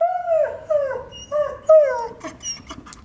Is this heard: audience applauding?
no